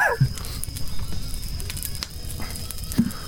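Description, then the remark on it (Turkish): A fire crackles and pops steadily over a low rumbling roar, with scattered sharp snaps throughout and no voices. “Ateş çok bağırıyor.”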